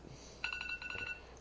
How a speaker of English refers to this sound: Oh, time's up. That's my alarm clock. That is actually my alarm.